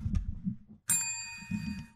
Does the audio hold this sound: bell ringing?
yes